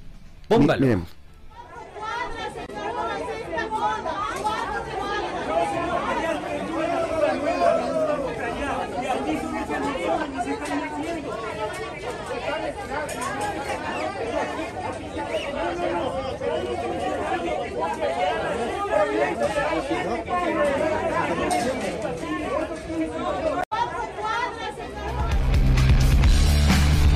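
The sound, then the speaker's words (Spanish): A steady wash of crowd chatter at the vehicle inspection center of Parque Bicentenario in Ecuador's capital, where users queue for hours; many overlapping voices blend into constant babble, with a low rumble creeping in near the end. “Tenemos un un video justamente de, lo que pasa en el, centro de revisión vehicular del Parque Bicentenario.”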